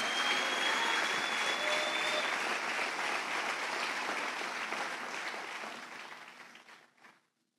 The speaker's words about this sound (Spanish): Si le va a aplaudir, hágalo con ganas.